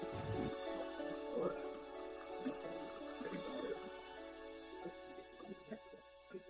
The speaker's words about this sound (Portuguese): A garoa, a chuva forte, já começa a cessar, tá? Está mais fraco.